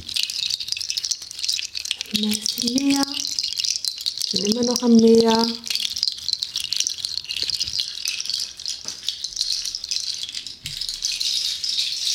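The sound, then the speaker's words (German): A steady, dense rattling hiss imitates falling rain, continuing evenly throughout with little change in loudness, while a voice speaks briefly over it near the start. “Und jetzt kommt der Regen.”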